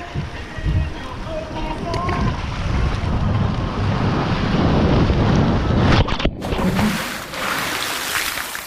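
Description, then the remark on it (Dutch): Busy outdoor water-park ambience at a swimming pool with about 15 waterslides: a steady rush of splashing, flowing water with wind buffeting the microphone and indistinct voices mixed in. A brief dip near the end, then the wash resumes. “dat is eh, het zwembad met zijn, hoeveel water? 15 uh, glijbanen dat we geteld hadden.”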